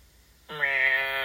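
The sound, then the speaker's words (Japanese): A stray cat that has come into the house gives a single drawn-out meow, fairly loud, starting after a brief quiet moment and holding steady to the end with no talking over it. “野良猫が入ってきましたわ。”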